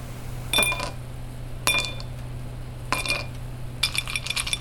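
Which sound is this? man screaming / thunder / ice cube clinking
ice cube clinking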